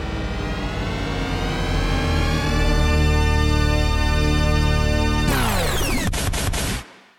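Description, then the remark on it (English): The THX Deep Note logo sound opens an album's first track: a massive cinema-style glissando of many synthesized voices swells into a loud, sustained chord, then breaks into abrupt glitchy stutters before cutting off. No one speaks. “It's a sampled glissando that is popularly known as the deep note.”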